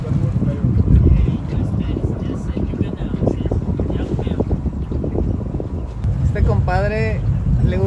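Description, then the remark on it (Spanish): A motorboat's steady low engine rumble mixed with wind buffeting the microphone, continuous throughout, with people talking over it, including a woman seated in the boat, and a voice rising clearly near the end. “Venlos, ya me puse aquí sentada en, el, en la lancha.”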